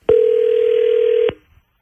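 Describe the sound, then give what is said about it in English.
A single steady telephone tone as a call is placed to someone's brother, humming loud and clear for just over a second, starting and stopping with soft clicks, then silence. No one speaks. “We're going to get your brother on the phone.”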